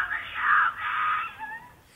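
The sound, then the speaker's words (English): A woman screams for help in a long, strained cry that trails off into a shorter wavering wail, sounding muffled and tinny, captured by a home doorbell camera; the cries appear to come from a white car speeding down the street. “Blood-curdling screams ring out.”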